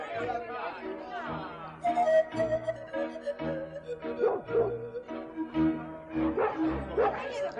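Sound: hunting dogs barking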